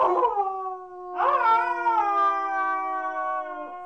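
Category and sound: sound effect, wolf howl sound effect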